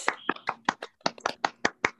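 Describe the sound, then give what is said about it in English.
A short round of applause from a small group, about ten crisp, evenly spaced claps at a steady rhythm, moderately loud, with no talking, celebrating the book We Have Always Been Here by Samra Habib winning the competition. “And I'm curious so, do we want to do a round of applause to celebrate”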